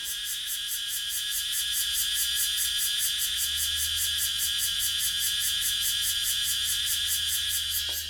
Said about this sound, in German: das ist die Abmoderation mit Hilfe einer Grille, die im Hintergrund zirpt, sehr laut, die sich direkt in eure Gehirne hinein zirpen wird. Ich gehe mal hin zu dieser Grille, beziehungsweise das ist eine Zikade und äh, lasst euch daran teilhaben.